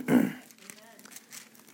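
A brief throaty vocal burst, then soft crinkling of paper towels being crumpled and handled, scattered rustles over about a second.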